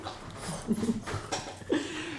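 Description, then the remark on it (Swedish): A small visiting dog makes a few short whimpers and breathy pants, with brief snuffly bursts between them against a quiet background. “Oj, här kom det en liten hund på besök.”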